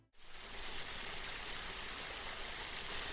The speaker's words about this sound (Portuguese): E o barulho de cachoeira aumentava cada vez mais.